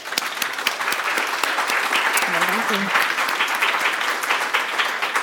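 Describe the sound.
Sustained audience applause, a dense steady wash of clapping at even loudness for several seconds, with a brief murmur of voices partway through.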